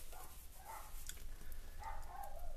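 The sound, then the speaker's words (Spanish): A dog gives a few short, soft barks or yips, spaced apart and somewhat faint, over a low steady background hum with no one talking. “¿Sí o no, perrito?”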